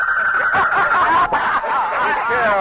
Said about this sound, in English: what the deuce is that infernal noise? Sounds like a guinea hen, General. Yeah. Doesn't appear to like your speech making, General.